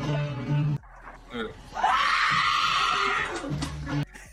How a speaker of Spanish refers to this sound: arranca con el eh. grito de …, pero luego continúa el de la señora